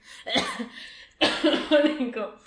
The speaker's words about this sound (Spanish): Últimamente me está pegando un tos horrible, perdón.